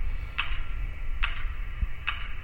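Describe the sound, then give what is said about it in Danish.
A metronome ticks steadily, three crisp clicks spaced evenly about every 0.8 seconds, over a low rumbling background hum. No voices. “Hver gang du hører cirka 10 slag på metronomen, er der en et sted i den her by, som dør.”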